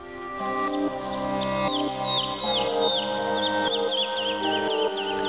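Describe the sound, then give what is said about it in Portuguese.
A lark sings a continuous, rapid stream of high, warbling chirps and trills that runs without pause, fairly loud, with a steady lower tonal hum underneath. “O canto não engana e que melodia maravilhosa!”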